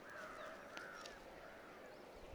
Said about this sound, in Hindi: वहाँ से कौआ भी काव काव कर रहा है कि ये मैं हूँ मैं हूँ मैं हूँ